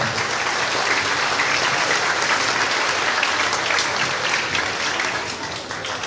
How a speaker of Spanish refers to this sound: Recibámoslo con un fuerte aplauso, por favor.